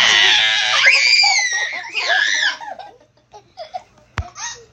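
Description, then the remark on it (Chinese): A child's voice imitates a little sister crying at a dentist's clinic in a told story: a long, loud, high-pitched wail with wavering pitch, followed by a second shorter wail, then softer sobbing whimpers and gasps trailing off. “然后呢，你就演哭的声音。”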